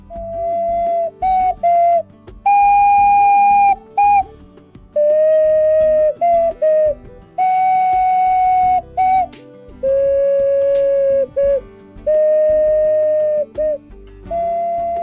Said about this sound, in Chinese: 我用陶笛来演奏一首歌曲，来欢迎我们的新同学。